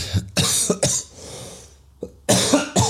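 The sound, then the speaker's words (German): A harsh coughing fit from a person who has had a cough for about three months: several quick, rough coughs in a burst, a short pause, then two more coughs. No talking. “Ich habe gefühlt seit drei Monaten Husten irgendwie.”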